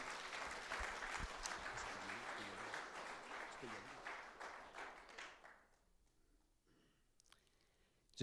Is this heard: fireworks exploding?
no